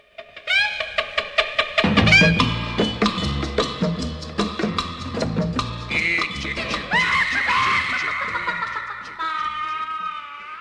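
A loud rock song from John Waters' film Pink Flamingos drives along with pounding drums and dense guitars while high, strained vocals shriek and wail in sliding, yelping bursts over the top.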